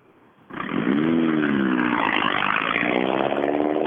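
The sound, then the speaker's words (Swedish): A rally car engine roars to life and revs hard as it pulls away, a loud, raspy, buzzing drone with rising harmonic sweeps as it accelerates, then holding at a steady high-pitched snarl. “Jag tyckte det lät lite extra när han åkte iväg.”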